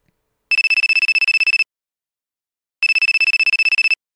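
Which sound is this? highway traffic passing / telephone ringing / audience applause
telephone ringing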